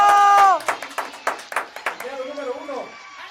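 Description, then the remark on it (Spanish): A short burst of audience applause at a raffle event: a few seconds of loose, uneven clapping with sharp individual claps, following a voice and fading as someone starts talking again. “¡Un aplauso!”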